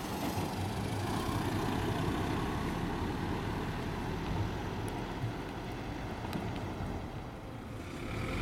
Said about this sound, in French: J'entends les bruits de voitures.